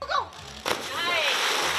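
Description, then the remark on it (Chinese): A dog dives into a pool at a dog diving competition in San Diego, California: a sudden loud splash followed by a steady, churning wash of water, with faint voices calling out before and during it. “美国加州圣地亚哥举办狗跳水比赛，吸引上百只狗儿报名参加。”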